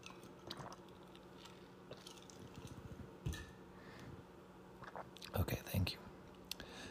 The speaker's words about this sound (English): i need to take a drink of water hold please